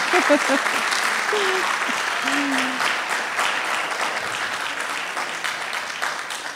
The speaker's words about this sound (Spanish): Yo le daría un aplauso al Señor y gracias Señor.